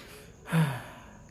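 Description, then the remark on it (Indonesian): A single loud, breathy huff into the microphone, a person imitating the heavy breathing of TV host Karni Ilyas, heard when his microphone was left on, rising and fading within about half a second against quiet background hiss. “ya kan pembicara itu udah ngomong micnya Karni Ilyas nggak dimatiin suara napasnya kedengeran cuy”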